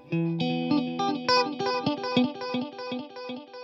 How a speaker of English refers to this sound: Now the next thing we're going to need is a guitar tone that is totally clean. I don't want to hear any effects. I don't want to hear any distortion. I don't want to hear any reverb. I don't want to hear any delay.